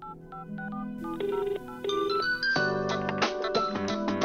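A phone rings with a bright, melodic ringtone that plays alone and loud, starting as a sparse tinkling tune and swelling into a fuller, repeating musical loop.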